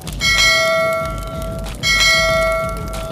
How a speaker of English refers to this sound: When the order was up, they would hit the brass bells with their spatulas.